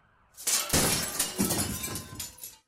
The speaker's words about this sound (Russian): Грабитель оставил свою роспись на кассе и принялся петь пьяную песню, попутно разбивая стеклянные витрины при помощи кубка из массивного золота.